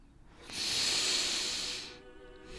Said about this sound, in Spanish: Inhala más purificación, más vitalidad, más vida. Confías en la sanación a través de la respiración.